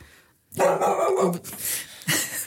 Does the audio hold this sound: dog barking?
yes